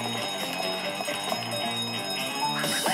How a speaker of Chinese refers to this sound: 哦，警铃大作，银行警铃大作。